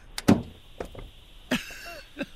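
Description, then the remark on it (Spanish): A door is opened with a sharp latch click and a thud, followed by a second clunk and faint rattling, with no talking. “¡Me ha dejado la puerta abierta!”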